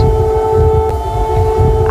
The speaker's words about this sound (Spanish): Se acabó el descanso en Kiev. Ucrania denuncia 22 nuevos ataques aéreos por parte de Rusia. Y toda la noche llevan escuchando este sonido, llevan sonando las sirenas